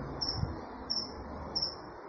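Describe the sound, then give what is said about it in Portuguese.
A cricket chirps three times in a steady rhythm, each short high-pitched trill clear, over a quiet low background hum with no talking. “Ah, tem um grilo que tá fazendo, que tá fazendo companhia pra mim aqui.”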